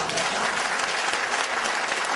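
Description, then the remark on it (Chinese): Audience applause fills the whole stretch: a dense, steady wash of many hands clapping at an even loudness, with no voices standing out above it. “掌声告诉我”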